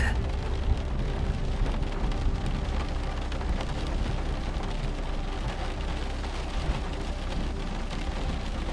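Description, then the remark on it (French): A deep, continuous rumble of thunder from an approaching storm rolls on steadily, layered with a dense hiss of rain, holding a fairly even loudness throughout with no voices. “Les oiseaux qui continuaient à chanter près de vous se taisent peu à peu, laissant place au grondement qui se rapproche.”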